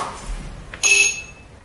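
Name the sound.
doorbell ringing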